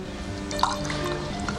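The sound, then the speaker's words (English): Someone spits out a mouthful of wine during a wine-tasting lesson in one quick, wet splutter, followed by a faint dribble of liquid over a low steady hum. No one speaks. “Don't taste it yet, …, for heaven's sake. Spit it out.”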